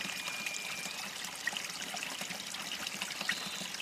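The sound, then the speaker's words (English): Water trickles steadily into a small creek pool of cool water by big boulders at the creek's edge, a continuous soft babble with light splashy bubbling, moderately quiet, with no voices. “Small trickling pool with cool water.”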